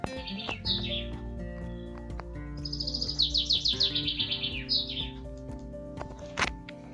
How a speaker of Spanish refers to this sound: así amaneció con los cánticos alegres y hermosos de los pájaros.